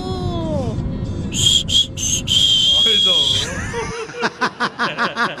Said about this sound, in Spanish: Mi papá no nos chiflaba, pero mi mamá sí para despertarnos. Y lo mismo hago con mis hijas todos los días.